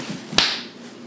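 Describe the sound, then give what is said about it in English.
A person slaps their own head with a hand close to the microphone, a single crisp smack that rings briefly and fades against a quiet background hum. “If you all didn't hear that, that's me slapping my head.”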